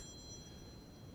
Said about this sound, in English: That's my alarm. It says I should be done in two minutes.